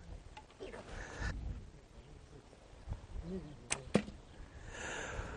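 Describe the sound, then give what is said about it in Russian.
An arrow with a blunted bone tip is loosed with a quick whoosh and strikes a boar carcass with a sharp smack, then a second quick knock as it bounces off without penetrating, amid low background rustling. “Стрела с костяным наконечником отскочила от э, туши животного, пробития не было.”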